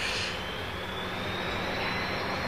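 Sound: airplane engine in flight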